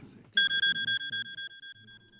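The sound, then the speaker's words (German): A smartphone notification for an incoming email sounds during a speech: a bright, high electronic tone pulsing rapidly and steadily for about two seconds, loud, over a faint low murmur of voices. “Oh nein, mein Smartphone pfeift.”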